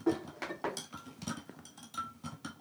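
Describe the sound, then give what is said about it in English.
A metal soup spoon clinks and scrapes against a glass in quick, uneven taps while a drink made with Field Notes vodka is stirred, a light ringing tone running through the steady clatter. “stirring with a soup spoon.”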